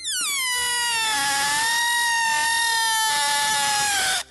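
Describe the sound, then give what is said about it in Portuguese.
An air-filled birthday balloon, its neck held and stretched so air passes through a very narrow gap, lets air escape in one continuous, loud, high-pitched squeal lasting about four seconds, its pitch sliding slightly downward, with no talking over it. “Depois segure na boquinha do balão e estique, deixando o ar passar, mas num espaço muito estreitinho.”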